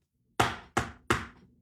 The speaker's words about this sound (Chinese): 敲门的声音。当下这人像触了电似的，噌的一下可就坐起来，下了床，来到半开的窗前就往外看，发现那声音是来自于院门呢，而且那声音还在继续。